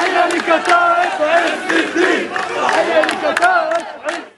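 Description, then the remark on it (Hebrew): A large crowd of hundreds of Hamas members chants loudly in unison at a street procession in the Shuafat refugee camp in Jerusalem, waving Hamas flags. Rhythmic shouted calls with many voices blend into a dense, sustained roar that pulses with each phrase. “שבאמת לא מפחדים לצאת ולעשות את התהלוכה הזאת ולהקריא את הקריאות ששמענו וגם להניף את דגלי חמאס”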